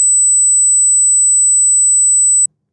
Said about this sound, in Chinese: 接下来是声音频率的测试，需要提示我们的听友可能会有一些比较难以忍受的高频声音的出现。如果对此类的声音比较敏感，建议您直接跳转到下一分钟再听我们的内容。这是八千赫兹的声音，